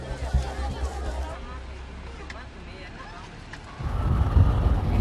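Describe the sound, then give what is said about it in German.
A ride on a boda boda motorcycle taxi in northern Kenya near the South Sudanese border: a low engine rumble and steady wind buffeting the microphone, swelling louder toward the end, with muffled voices in the background. “Ich sitze hier auf einem Boda Boda. Das ist ein Motorradtaxi, mit dem man sich hier im Norden Kenias vorwärts bewegt.”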